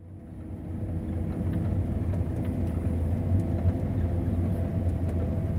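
A heavy farm machine's engine drones steadily, a deep, loud rumble with a continuous low hum that holds constant throughout, with faint higher clicks and rattles on top and no voices.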